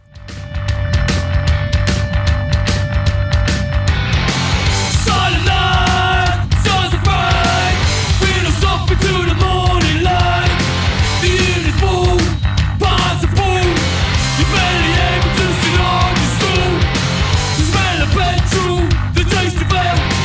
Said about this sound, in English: who make some heavy punk esque sounds out of West London. Their festive offering is gritty and growling